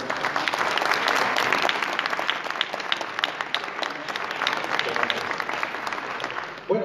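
Sustained audience applause fills the room, dense clapping from many hands at a steady, even level for several seconds before cutting off abruptly at the end.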